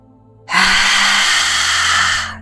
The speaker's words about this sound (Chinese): 第十次深深的吸气。不断的去展现你的勇气。